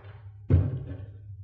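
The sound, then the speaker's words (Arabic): A door is shut with a single solid thud. The low impact is followed by a brief fading rumble, with a faint background hum and no voices. “الله ايه اللي دخلك وكمان قافل الباب”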